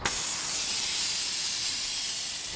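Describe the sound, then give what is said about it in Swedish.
A steady, loud hiss of escaping air as the air suspension of a white special vehicle for wheelchairs and patients lying down vents while the vehicle is lowered at a depot. It starts abruptly and holds constant for a few seconds with no voices. “han visar hur bilen med ett karaktäristiskt ljud”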